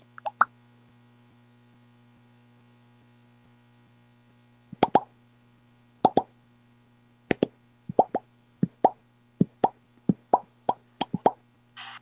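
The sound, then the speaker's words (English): A phone plays crisp popping sound effects, a quick pair, then a pause, then a steady run of sharp pops, many doubled, with a low electrical hum underneath and no talking. “It can't, my phone can't stop popping.”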